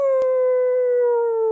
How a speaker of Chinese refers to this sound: 这种狼嚎声，而且你看他没人教他吧，那声音、那动作、那角度，嚎的跟真正的野狼一模一样。